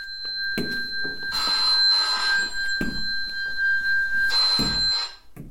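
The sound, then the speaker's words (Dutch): An old-fashioned telephone bell rings in repeated loud bursts, with a steady metallic trill and brief pauses between rings. “Oh, de telefoon gaat.”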